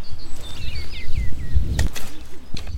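Bright, chirpy spring birdsong in short sliding whistles over a low outdoor rumble with a few brief rustling bursts, in a vegetable garden north of Limoges, France, while the garden is being hoed; no one speaks.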